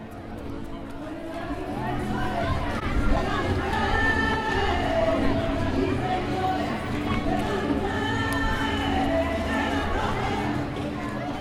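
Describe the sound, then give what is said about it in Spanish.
A lively crowd fills the playground of Colegio de la Paloma, a school, at a charity party (fiesta solidaria) where families take part, with overlapping chatter and children's voices forming a steady, dense hubbub that stays fairly loud throughout. “Pues ahora mismo estamos en el campito, que es el patio del Colegio de la Paloma, y estamos en la fiesta solidaria y se organiza pues con los varios objetivos.”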